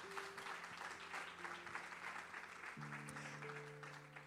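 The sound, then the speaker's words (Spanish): An audience applauds the Lord in a steady, dense wash of clapping that fills the whole clip, with sustained organ or keyboard tones humming underneath and shifting to a fuller chord partway through. “Ah, dele ese aplauso al Señor.”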